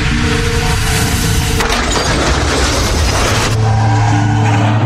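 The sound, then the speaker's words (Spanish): A loud crash as a driver going 60 km/h on a road with a 50 km/h limit hits a car: a sustained burst of crunching metal and shattering glass that swells in the middle, then gives way to rumbling debris and lingering engine noise. No one speaks. “En este punto se fracturó el cuello, luego de chocar con el carro.”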